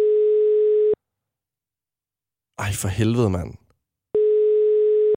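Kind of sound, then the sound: signal or alarm, telephone call tone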